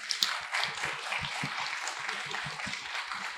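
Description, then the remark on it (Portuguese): A crowd applauds steadily, many hands clapping at once in a dense, continuous patter at moderate volume, with no voices standing out above it. “E eu queria que vocês dessem uma salva de palmas a Cacá e ao André.”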